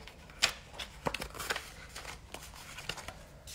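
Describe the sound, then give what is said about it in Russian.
Rustling and crinkling of a sheet of paper with a few sharp clicks and taps as a pen and the sheet are picked up and handled, heard alone without talk. “Я сейчас возьму листочек с ручкой про желание.”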